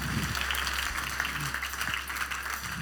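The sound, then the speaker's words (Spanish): A full-house audience applauds the people attending, in a dense, steady wash of many hands clapping, fairly loud and continuous for the whole stretch, with some faint voices mixed underneath. “Dale un fuerte aplauso a todas las personas que han decidido tomar este tiempo.”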